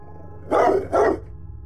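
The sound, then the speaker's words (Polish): Two separate barks from Flasz, a dog outside at night, evenly spaced and moderately loud, with an outdoor quality against a low steady background hum; no one speaks. “Kolina wybudziły dwa pojedyncze szczeknięcia flasza dobiegające z zewnątrz.”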